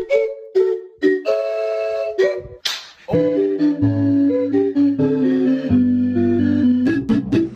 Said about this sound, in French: Il y a les gars qui jouent de la bouteille de bière hein, en se mettant des gifles pour marquer le rythme. Pourquoi pas